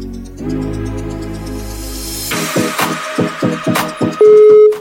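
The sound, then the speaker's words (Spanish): Music cuts off on a Spanish radio show, followed by a quick series of dialing beeps and then a loud, steady telephone ringing tone from an outgoing call the host makes to a listener, with no one speaking. “vamos a ver si nos coge el teléfono hoy por aquí.”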